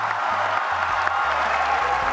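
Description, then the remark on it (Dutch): A large crowd in Paris cheers and applauds at the 2015 adoption of the Paris climate agreement by 195 countries, a dense, steady roar that stays loud for the whole moment, with low humming tones shifting underneath. “Dat ging gepaard met gejuich en met tranen.”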